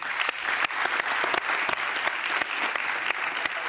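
An audience applauds the creator of Guardiões do Litoral, a volunteer movement of surfers who organized to clean the beaches. It is a steady, dense wash of many hands clapping with sharp individual claps popping through, sustained at an even level for a few seconds with no one speaking.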